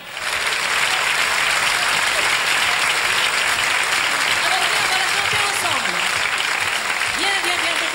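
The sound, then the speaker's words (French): Sustained, loud applause from a large studio audience welcoming a singer, a steady dense wash of clapping with faint voices and cheers mixed in, filling the whole stretch. “Je vous demande de l'applaudir.”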